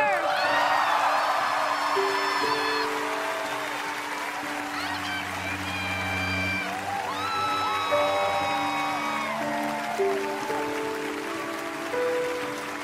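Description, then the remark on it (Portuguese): A large audience at The Game Awards in December 2016 applauds warmly and steadily for the whole stretch as the Game of Impact award goes to That Dragon, Cancer and the winner goes up on stage. It is a dense wash of clapping with a few whoops, while bright orchestral music plays over it. “O público o recebe com palmas calorosas e ele sobe ao palco para receber o prêmio.”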